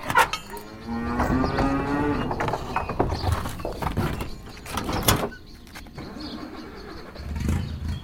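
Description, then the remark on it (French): Cattle moo in a farmyard at the edge of a small village of 500 inhabitants, about 45 minutes by car from Paris: one long drawn-out low call followed by clanks, shuffling and knocking noises, with a faint engine-like rumble in the background and no talking. “Le papa de Clara est agriculteur et sa ferme est en lisière d'un village de 500 habitants”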